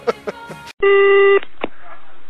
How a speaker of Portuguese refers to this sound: E o telefone toca aqui em casa, eu não sei quem. É. Um momento.